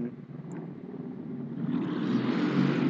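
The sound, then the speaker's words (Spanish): A motorcycle engine drones steadily outside and grows gradually louder as it approaches, with a continuous rumbling hum and no voices. “dejamos pasar la moto.”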